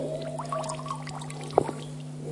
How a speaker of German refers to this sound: Es ist ein Arbeitsschwamm geworden. Äh, wenn der Schwamm voll ist, ist es ja relativ leicht, Wasser rauszuquetschen, oder?